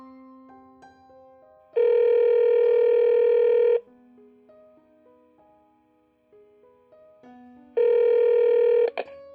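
A phone line sounds two long, steady electronic tones, with a run of short beeping key presses at changing pitches in between, as a number is dialed. Clear and close, with no voices.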